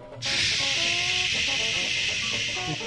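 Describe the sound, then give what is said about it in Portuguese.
Rival Arsenal and West Ham football fans, during matches against Tottenham, make a loud, steady hiss in imitation of escaping gas. It starts abruptly and holds for nearly three seconds over a low murmur of crowd voices. “é importante ressaltar aqui que os, os rivais, como o Arsenal e o West Ham, quando jogam contra o, o, o Tottenham, fazem questão durante o jogo de fazer esse barulho aqui, ó.”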